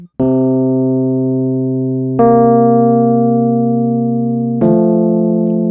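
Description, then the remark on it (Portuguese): Three sustained electronic-sounding two-note intervals played one after another, steady and loud with no talking, the last one resolving as a lower note slides down by a semitone. “Isso, você espera essa outra nota resolvendo ele, né?”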